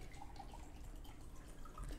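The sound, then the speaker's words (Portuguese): Drinking water being poured, a faint, steady trickle of liquid with soft dripping textures running continuously for a couple of seconds, with no voices. “tá gostando cara, da água, cara?”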